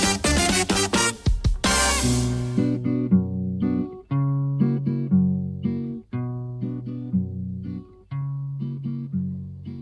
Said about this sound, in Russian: Да, я хотела бы, правда, начать следующую часть нашей беседы, нашего общения с прекрасного романса